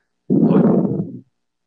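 A cat breathes heavily right against the microphone while looking at new shoes, one loud, breathy huff lasting about a second, rough, with no other sounds around it.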